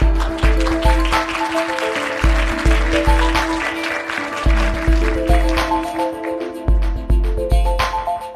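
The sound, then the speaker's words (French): An audience claps steadily throughout, welcoming a guest, the applause mixed with a loud, upbeat musical jingle carrying a regular thumping bass beat and sustained tones. “On peut l'applaudir.”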